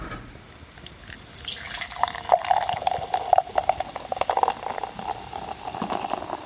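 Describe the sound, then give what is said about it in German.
Northern Monk beer is poured from a can into a glass, carefully so it does not foam over, a steady gurgling splash lasting several seconds with fizzy bubbling throughout and no one talking. “So, ein, Fresse halten, einschenken.”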